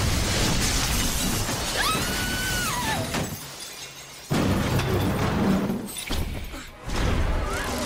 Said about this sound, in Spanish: Y cuando los interrumpe ese coche volando y estrellándose por la ventana y detrás de él el Doctor Octopus...